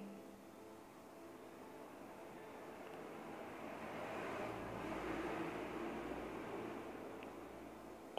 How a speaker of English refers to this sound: Waves outside, waves and chickens. and crickets and frogs and dogs and lizards.